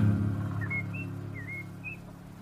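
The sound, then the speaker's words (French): Four short, bird-like whistled chirps imitating the calls of several different birds, called légane, djambatutu, boré and léga, each a quick sliding note, rise and fall in a loose sequence over a steady low background hum, fairly faint and with no talking. “Les sons des oiseaux, on a plusieurs oiseaux différents. On dit légane, djambatutu, boré, léga.”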